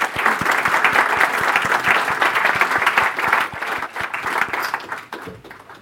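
An audience applauds with dense, continuous clapping that stays fairly loud and steady, easing off slightly toward the end. No one speaks over it.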